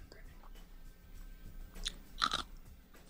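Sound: crunching ice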